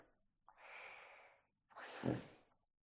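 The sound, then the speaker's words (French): A euphonium gives two soft, breathy snorting puffs, alone, with a brief pause between them; the second swells and ends in a low, fluttery, kiss-like buzz. “C'est un euphonium.”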